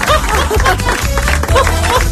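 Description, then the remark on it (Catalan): A studio audience applauds guest Abel Puigdauler loudly and steadily for about two seconds, a dense wash of clapping, with a low rhythmic thump pulsing underneath. “Abel Puigdauler, un aplaudiment.”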